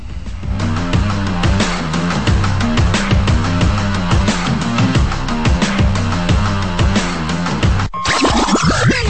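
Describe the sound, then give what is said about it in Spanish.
A loud, punchy radio station jingle bumper, played to introduce the station's phone line for listeners: busy music over a driving, steady beat that cuts off near the end into a bright swooping sound effect. No voices. “Dame el bombo para que la gente escuche el número de teléfono.”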